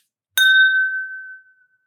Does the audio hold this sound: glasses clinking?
yes